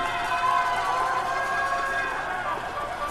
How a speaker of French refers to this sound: ces concerts euh, de casseroles aux fenêtres euh, des quartiers de la classe moyenne, la nuit tombée, on les entend dès que Bolsonaro s'exprime